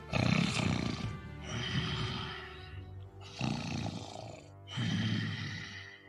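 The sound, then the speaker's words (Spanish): Hollow, rasping breathing of a large creature that has stopped outside a door: four long, loud growling breaths in a slow, steady rhythm, with nothing else around it. “Algo respirando hueco.”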